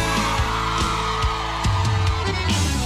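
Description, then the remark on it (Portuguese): At a party, a crowd of women shouts and cheers loudly and continuously, their voices blending over pounding party music with a steady, regular drum beat. “Cadê o grito das mulheres?”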